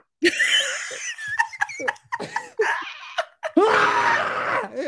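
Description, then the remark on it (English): A person vocally imitates the hacking, throaty cough of their parents' old Bernese Mountain Dog, Marshall, about 13 or 14 years old: a burst of raspy, strained noises in uneven fits, ending in a long gravelly wheeze, loud with no words. “He makes him sound like a man, just like he's got a tickle in the back of his throat.”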